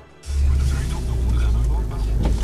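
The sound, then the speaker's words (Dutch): A car engine starts up with a sudden, loud low rumble that holds steady, with people's voices talking over it, as the car bumps into the car behind it. “Rij nou tegen de, achterste, de auto achter ons aan.”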